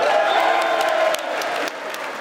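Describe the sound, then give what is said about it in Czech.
Sustained, dense applause from a large crowd of members of the US Congress as Ukrainian President Volodymyr Zelensky is presented, a steady roar of many hands clapping with faint cheers mixed in, holding loud throughout before easing slightly toward the end. “Jako kdyby ho nechtěli přes ten potlesk kongresmeni vůbec pustit ke slovu.”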